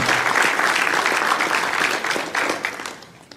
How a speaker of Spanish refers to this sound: Dele un aplauso al Señor ahí, bien, bien fuerte.